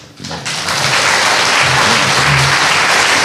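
An audience bursts into applause that swells within half a second and then holds as a steady, loud wash of clapping, with a few faint voices murmuring underneath.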